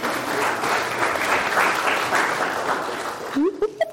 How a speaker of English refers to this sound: Let's give a round of applause to our volunteer.